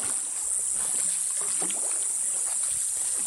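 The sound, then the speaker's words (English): Gentle paddle strokes of a small canoe swish and dip through the black, still water of a jungle stream, while a constant high-pitched drone of cicadas fills the background; no one speaks. “Paddling by small canoe up a stream in the jungle, the water is black and still.”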